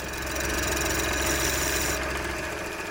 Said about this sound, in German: Dann geht er zu einer Maschine und bringt die Röhre aufs korrekte Maß. Das ist ein rotierendes Messer und das ist so ziemlich die einzige Maschine, die man normalerweise beim Pfeifenbauen hat.